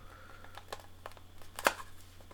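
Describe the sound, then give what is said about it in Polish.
Quiet plastic scratching and small clicks, building to one sharp snap as a router's cover pops loose, pried off with a fingernail, followed by a few softer taps. No one speaks. “O, o, już właśnie zdjąłem y, pokrywę.”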